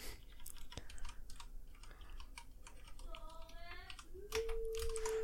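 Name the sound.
computer keyboard typing clicks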